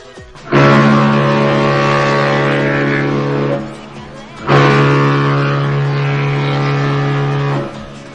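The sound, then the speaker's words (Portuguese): A ship's horn sounds two long, loud blasts of about three seconds each, separated by a short pause. The tone is deep and brassy, rich in overtones, with no voices. “Ah, eu acho que sim, porque não é possível que não, mas por via das dúvidas lá vai a buzina do navio.”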